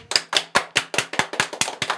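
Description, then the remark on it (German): A short burst of clapping: about ten sharp, even claps in a quick steady rhythm, fairly loud, with no voices over it. “Ähm, ja, können wir mal kurz einen Applaus haben? Bravo!”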